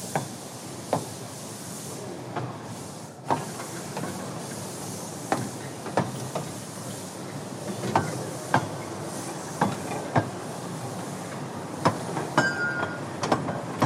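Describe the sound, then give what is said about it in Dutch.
The train Moortje rolls slowly out of the tunnel toward Marenrijk station, a steady rumbling hiss punctuated by sharp clacks of wheels over rail joints, arriving every second or so in an uneven rhythm. No one speaks. “En Moortje die rijdt eh, zoetjes aan eh, richting station Marenrijk vanuit eh, de tunnel.”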